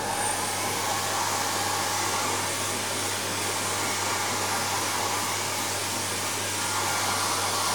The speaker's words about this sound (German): Wir trocknen uns die Haare und erzeugen Geräusch.